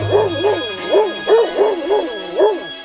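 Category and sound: animal, big dog barking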